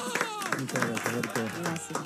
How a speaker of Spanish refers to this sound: Y tuvo la gentileza de venir a visitarnos, ni más ni menos que con Pilar Gamboa, su coprotagonista, a quienes recibimos con este aplauso gigante.